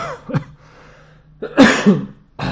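A few harsh coughs in an uneven burst: a short one first, then a louder, longer fit after a pause, ending with another cough. No speech.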